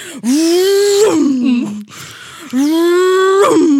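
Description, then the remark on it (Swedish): A voice imitates trucks reversing back and forth, over and over, with two drawn-out, rising vocal tones, each held for about a second with a brief lower dip between them, fairly loud. “Alltså det var liksom lastbilar som backar fram och tillbaka alltså gång på gång.”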